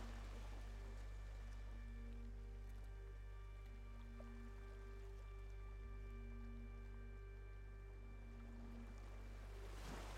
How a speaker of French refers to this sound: Vous entendez le son de l'eau, des vagues. Vous pouvez entendre le son de cette brise agréable qui vous traverse. le son ambiant présent sur cette plage.